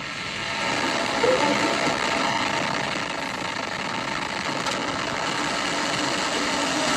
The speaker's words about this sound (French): Allumage 2 EAP, décollage. dernier voyage réussi pour la fusée Ariane 5, un 117e et dernier vol au départ euh, du centre spatial guyanais qui a placé en orbite le satellite de communication militaire français Syracuse